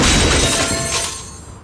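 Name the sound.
outdoor grill smashing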